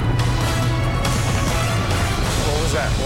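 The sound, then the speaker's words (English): A taxi tire going flat while driving: a loud, continuous rough rumble of road noise with low droning, irregular knocks and muffled voices mixed in underneath. “Do we have a flat tire? Seriously?”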